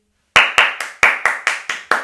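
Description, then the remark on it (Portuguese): A single person claps eight times in a quick, steady rhythm, each clap sharp and loud with a bright snap and a brief decay, with no talking. “Tem uma palma.”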